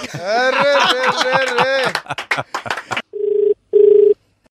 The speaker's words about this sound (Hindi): तो मिला लेते हैं फोन किसकी किस्मत खुलने वाली है